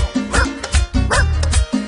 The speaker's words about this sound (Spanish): Lo llama por teléfono y de esta manera el perro le contesta.